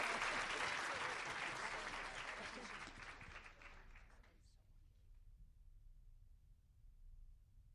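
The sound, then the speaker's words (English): An audience applauds two panel members at the end of a conference panel discussion, with a dense, crackling wash of clapping that starts loud and steadily tapers off over about four seconds, leaving a low murmur behind. “And let's have a round of applause for our, our two panel members,”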